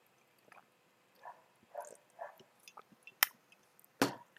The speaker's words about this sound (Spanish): Pues ahora nada, que descanse en paz la reina, y este traguito de soda pues va a su salud.